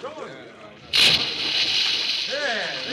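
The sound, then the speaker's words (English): A sudden loud splash as a person jumps into the water, followed by a sustained rushing wash of churned water, with voices talking before and after. “I am going into the water.”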